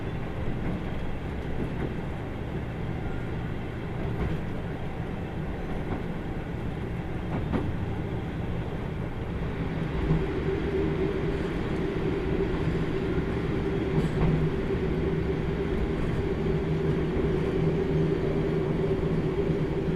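A JR Kyushu limited express, the Kyushu Odan Limited Express No. 3, runs steadily along the rails of the Hōhi Main Line between Tateno and Miyaji in Kyushu: a continuous low rumble with faint rhythmic clacks, and a humming motor tone emerges midway and holds to the end. No one speaks.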